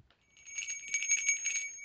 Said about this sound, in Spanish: Campanita.